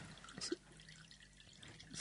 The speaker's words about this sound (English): okay, so what we're going to do is squirt this water gently. So, I'm just going to gently dribble this water onto the surface